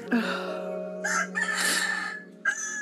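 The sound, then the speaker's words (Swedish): A rooster crows loudly, a single drawn-out cock-a-doodle-doo with strained, rising and falling calls, heard on its own without talk. “Det är ett klassiskt avslut när du skriker på tuppen.”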